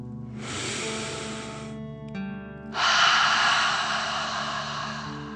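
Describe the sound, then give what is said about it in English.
A long, deep inhale through the nose filling the belly, a brief pause, then a strong, forceful exhale, part of a deep "dragon breath" breathing exercise, loud with no talking. “Remember to breathe in through your nose, filling up your belly, and then out, pretending you are breathing fire.”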